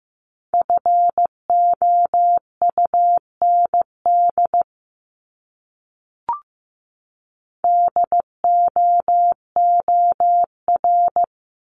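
Morse code beeping at 15 words per minute, sending words from a list of the top 500 words: a steady mid-pitched tone keyed into short and long pulses, two bursts of characters split by a pause with a single faint click.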